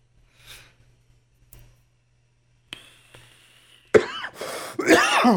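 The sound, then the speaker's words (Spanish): A few harsh coughs burst out near the end, loud and raspy, following a quiet stretch with a faint breathy noise and a couple of small clicks. “si me puedes silenciar esa tos sería espectacular.”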